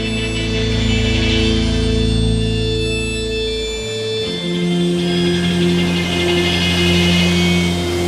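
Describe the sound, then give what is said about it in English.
A loud, dense surf-ska instrumental with sustained droning tones and a bass line that steps to a new note midway through, with no singing. “it's going to show off how you can mash ska with surf”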